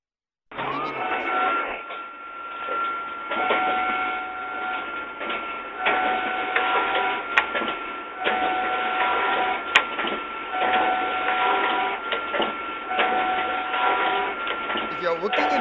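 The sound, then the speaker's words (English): A photocopying machine in an office runs steadily with a continuous whirring, mechanical drone, fairly loud, with a few sharp clicks partway through, sustained from start to finish. “If you haven't still, this is the photocopying machine in the office.”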